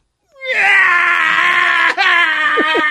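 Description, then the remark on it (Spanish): A voice imitates a little boy crying, letting out one long, loud, strained wail with a brief catch near the end before it carries on, alone. “¿Por qué tú lloras? ¿Por qué tú lloras, nene?”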